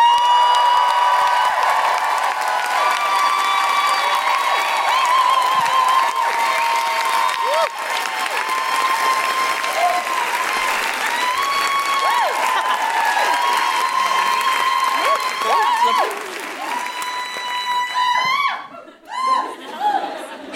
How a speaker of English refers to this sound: well, let's get ready to rumble right now because our next guest is a Newcastle local. Please put your hands together and make extraordinary Geordie woohooing noises for Sammy Dobson!